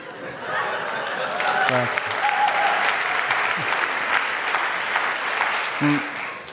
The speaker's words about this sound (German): nach, dem, nach seiner Predigt haben sie sogar geklatscht. Meine, bei, mir, bei mir klatschen sie eigentlich nie.